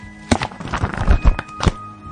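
A hardcover book, the novel El Oscuro Pasajero on which Dexter is based, is thumped down onto a table: a sharp knock, a few softer handling bumps, then another firm thud, with no one speaking.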